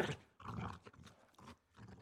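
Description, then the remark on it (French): A human voice imitates a dog barking, giving a quick series of short, gruff woofs with brief gaps between them. “Waf, waf le chien de la maison lui aboie après, alors l'ours repart sans demander son reste.”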